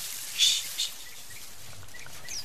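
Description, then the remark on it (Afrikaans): A bird calls twice in quick, bright high-pitched bursts, then a few faint chirps follow over a quiet outdoor background. “Met my nie sê jy sien nou weer 'n skaars voël nie.”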